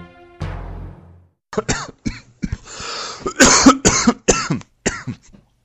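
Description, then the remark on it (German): A brief fading musical tone gives way to a loud fit of heavy coughing from a cough caught at Easter, a rapid series of harsh, rasping coughs in uneven bursts with short gasps between them. “Oh, da hatte ich aber ein heftiger Husten erwischt hier zu Ostern.”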